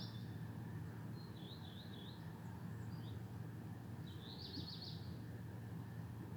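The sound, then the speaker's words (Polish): A steady, low droning hum of an air conditioner fan, probably at the back of the shop next door, runs without a break, with a few faint bird chirps twittering above it. The fan switches on from time to time. “włącza się taki jeszcze od czasu do czasu y, taki szum. I to chyba na tym sklepie obok e, taki wiatrak z tyłu, klimatyzator chyba jest.”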